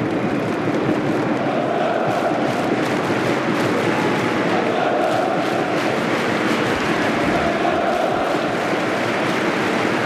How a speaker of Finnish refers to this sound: Deutschland huudot kaikuvat